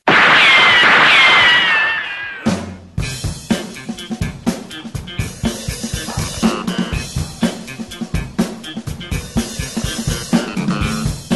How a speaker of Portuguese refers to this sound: Muito bem, queridos e queridas, ao som desses, dessa matilha, é matilha que fala Esse também? Coral de cães. Desse coral canino.